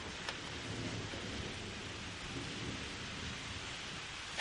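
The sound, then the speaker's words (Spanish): Steady rain hisses evenly throughout with a soft low rumble of thunder beneath it, ending in a brief sharper burst of sound. “Un relámpago iluminó el salón.”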